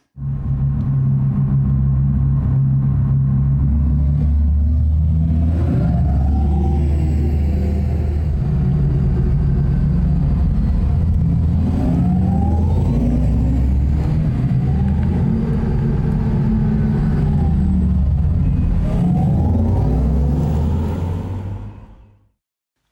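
The exterior drive sound of an Audi e-tron GT electric sports car: a deep, steady synthetic hum with layered low tones that swell and rise in pitch as it accelerates, sweeping up and easing back several times before fading out.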